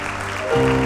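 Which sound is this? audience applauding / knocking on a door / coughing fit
audience applauding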